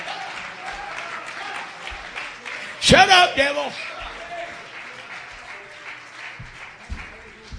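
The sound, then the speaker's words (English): A crowd claps steadily throughout in a dense, continuous wash of applause, with a loud burst of voices shouting "Shut up, devil" together midway before the clapping carries on. “Clap your hands and say, Shut up, devil.”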